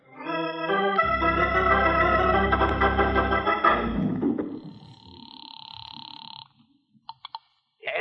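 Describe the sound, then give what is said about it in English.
A telephone is dialed in a ceramic shop: a loud sustained droning tone gives way to a steady electronic phone tone, then a few short, sharp clicks and beeps, with no one talking. “you got a phone here in your ceramic shop, Annabelle? Mm, of course. I got a lot of phoning to do.”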